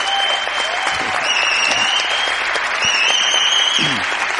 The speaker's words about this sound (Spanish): Pido un aplauso para él. Pedro García Aguado.